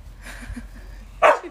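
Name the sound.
dog barking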